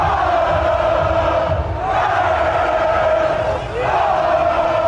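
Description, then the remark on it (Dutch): A dense, loud crowd din of many overlapping voices in Amsterdam's crowded Vondelpark on a sunny day, with shouting and a sustained chant-like tone that briefly dips and swells twice. “Toch leidde het zonnige weer voor drukke parken en binnensteden.”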